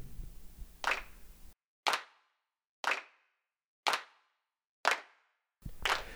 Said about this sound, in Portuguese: Desculpe, os... desculpe o tímpano, eu vou pôr agora uh, a vinheta de pessoas batendo palmas ou ou qualquer outra coisa.